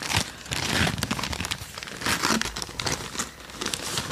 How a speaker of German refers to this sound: Jetzt musst du noch mal auspacken.